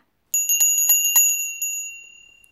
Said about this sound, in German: Petronella hätte den ganzen Tag tanzen können, aber da klingelte ihre kleine Wichtelzofe mit einem Glöckchen, denn es kam ein Gast herein. Sie klingelte.